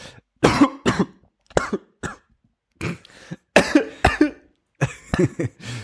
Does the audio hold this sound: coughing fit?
yes